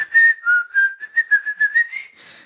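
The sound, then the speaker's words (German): A cheerful tune is whistled clearly by the cartoon character Peter as he arrives home, a quick run of bright, bouncy notes with short gaps between them, ending on a softer breathy trail. “Peter kommt zu Hause an, wie du schon sagst, fröhlich pfeifend hier.”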